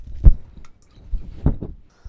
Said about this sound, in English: I need a a water break.